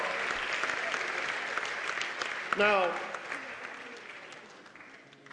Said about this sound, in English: Now let's get a Lord a hand clap. Let's get a Lord Let's get the Lord a hand clap. Praise Jesus.